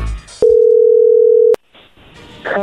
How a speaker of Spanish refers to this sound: A ver, ahí se está marcando. Le va a marcar el lobo.